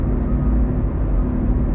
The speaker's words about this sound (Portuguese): Senhor meu Deus, Pai, eu tô aqui no carro dirigindo, eu tô sozinho.